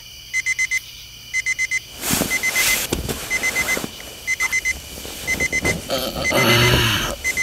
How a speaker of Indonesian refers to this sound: Alarm dari telepon genggamku berteriak. Terus terang, sengaja aku buat seperti itu agar aku jengkel.